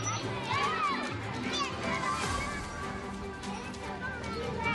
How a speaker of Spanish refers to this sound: El sonido del. del adiós. Del adiós a un curso. De los estudiantes. De los más o menos peques.